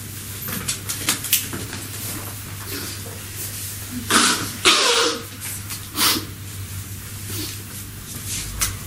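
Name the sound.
person blowing their nose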